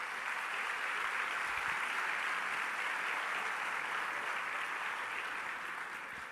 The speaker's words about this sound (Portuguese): Uma salva de palmas para ele. palmas.